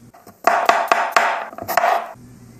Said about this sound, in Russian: Затем нам нужно два ломтика имбиря. Его тоже мелко нарезать.